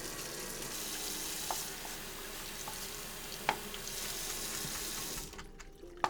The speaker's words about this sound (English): All right, please excuse the running water momentarily. to get it warm.